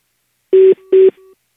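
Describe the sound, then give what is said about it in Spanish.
Two short electronic keypad beeps from a phone dialing a cell phone number during a Panda Show prank call, each a steady tone lasting a fraction of a second with a brief gap between, clear with no talking. “Te estoy marcando tu celular y me manda buzón.”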